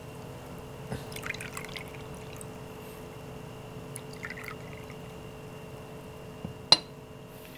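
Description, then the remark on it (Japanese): Chamisul soju is poured into a glass in a couple of short, quiet gurgling bursts, followed near the end by a single sharp clink of glass, with no voices. “もうチャミスルなんでなんかもう先に飲みながらやるのもあ最高です、ね、いいんじゃないかなと思って大賛成はいなんでチャミスルを注ぎます”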